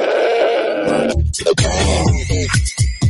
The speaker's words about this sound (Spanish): Pero esa cabra es la del Nóminas, ¿no? Esa cabra es la del Nóminas